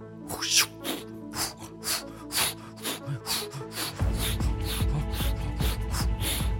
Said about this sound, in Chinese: 堵住破洞的地方，再把内胎装回去，开始转转转。好的好的，哇哇哇！哎啊哎，用打气筒灌气